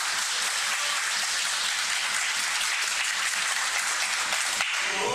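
wrestling crowd cheering

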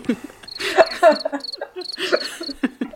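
cricket chirping sound effect

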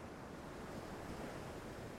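distant ocean waves

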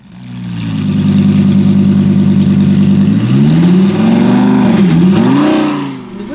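car engine revving

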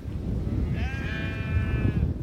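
sheep bleating

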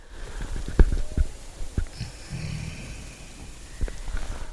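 reindeer breathing up close

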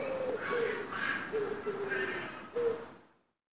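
common wood pigeon cooing

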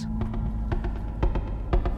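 car engine idling

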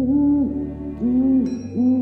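owl hooting

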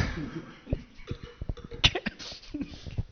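coughing

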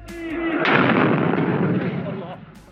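loud explosion

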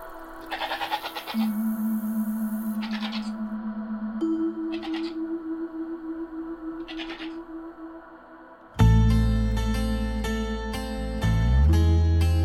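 goat bleating

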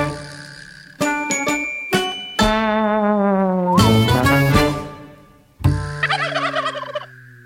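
turkey gobbling

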